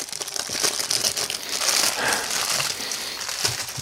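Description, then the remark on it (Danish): Steady crinkling and crumpling of plastic packaging for a few seconds, dense bursts of rustle with no speech, as well-wrapped packaged honey cakes are unwrapped. “Ja, så tænker du lidt, de er godt pakket ind, fordi de skal jo holde sig.”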